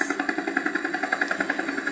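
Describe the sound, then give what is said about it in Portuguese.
Helicopter engines roar steadily with a fast, regular thudding pulse, loud, filling the whole stretch with dense mechanical noise and no voices. “Não pararam de berrar nem por um segundo, mas os berros eram abafados pelo barulho dos motores.”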